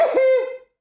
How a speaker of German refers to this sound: Gesundheit